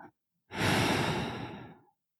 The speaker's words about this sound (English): So imagine that green, warm feeling. Mm-hmm. You're breathing it in and you breathe out.